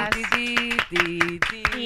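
A round of applause for a pair of panties: quick, steady hand claps crackling throughout, layered over bright, sustained musical tones that shift pitch a few times. No one speaks over it.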